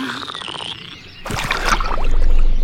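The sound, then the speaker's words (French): A small baby frog croaks in short tonal bursts, then a louder stretch of splashing and paddling in water follows not far away, with no voices. “Je sens un bébé grenouille qui barbote pas très loin.”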